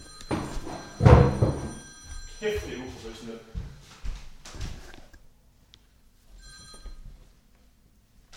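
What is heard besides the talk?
telephone ringing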